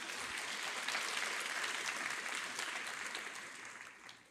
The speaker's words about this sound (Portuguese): Se você crê nisso e quer isso, aplauda Jesus mais uma vez.